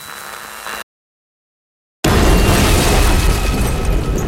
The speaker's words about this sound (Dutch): Niemand weet op dat moment dat de fabriek vol ligt met vuurwerk. En dan is er een grote tweede knal.